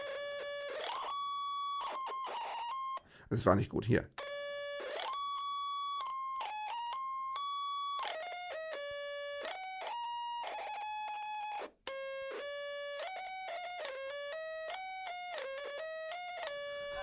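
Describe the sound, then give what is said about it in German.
A harsh electronic tone from a device that has just been switched on plays a halting, slightly wobbly melody, stepping between pitches with short gaps and a brief noisy burst partway through; a voice briefly speaks near the start. “Eine etwas verstümmelte Version von …. Das Ding klingt scheiße”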